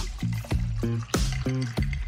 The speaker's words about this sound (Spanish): Tónica hasta arriba. Un poquito de espuma y listo.